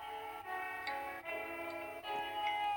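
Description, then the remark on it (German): A trap rap track plays at steady volume, its bright sustained synth chords shifting every second or so over ticking percussion, with no voices. “ist auf jeden Fall …. Und ich glaube, es war … von seinem Trap-Album.”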